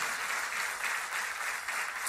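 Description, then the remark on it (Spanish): An audience gives a loud round of applause to Christ during a sermon, a steady, dense wash of clapping that holds at an even level throughout the short stretch, with no voices standing out above it. “Dele un fuerte aplauso a este Cristo maravilloso.”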